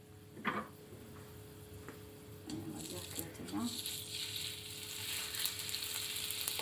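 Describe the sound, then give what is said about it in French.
Chicken sizzles steadily in a frying pan, a broad hiss that swells louder midway, with soft squishy scrapes and taps as a spatula presses and turns the meat, flipping it every 5 seconds and pressing it so it grills evenly on both sides. “Pour cuire son poulet, Marlène Dispoto le retourne toutes les 5 secondes dans sa poêle, en pressant dessus avec une spatule”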